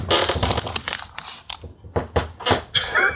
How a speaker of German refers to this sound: Mein Bett knarzt. Nein. Oh. Ich hatte gerade wirklich Sorge um dich. Ich mache manchmal auch so Geräusche. Ja, das äh, klang wirklich äh, wie als würdest du dich strecken.